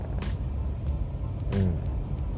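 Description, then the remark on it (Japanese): Road traffic rumbles steadily, with the low drone of trucks and minivans driving past on a road along the east side of an airport, in an area with many logistics centers, and brief whooshes of vehicles going by, a faint murmur of voice mixed in. “ずっと車の話ができないのはですねなんかもうトラックだったりミニボミニバンだったりですねもう所有者ばっかり今走ってるんですねね”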